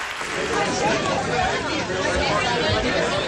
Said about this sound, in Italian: Questi applausi ci riportano a un momento molto emozionante per tutti noi di Radio 3, per chi ci seguì in diretta da casa e per chi era presente nella chiesa di San Giacomo Apostolo a Forlì domenica 12 giugno durante la festa eh, di Radio 3